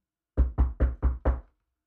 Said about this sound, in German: es klopft. Ja. Wir lassen unseren Gast rein.